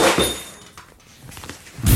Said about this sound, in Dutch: Oh oh, er valt hier een beeldje kapot. Oh, ik oh, moet nee. geen van mijn plankje pakken. Oh, oh, oh shit. Oh, oh nee. Er vallen er steeds oh, veel dingen.